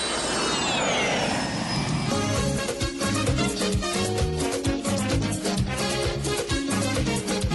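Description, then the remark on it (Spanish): A jet airplane flyby effect: a loud roaring whoosh with a high whine that sweeps downward for about two seconds, then gives way to upbeat rhythmic music. “Listo, comemos un segundo avión a ver dónde aterrizamos.”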